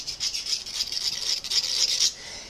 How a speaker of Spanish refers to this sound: Vamos a cortar, vamos a afilar los cuchillos. Mira el cuchillo.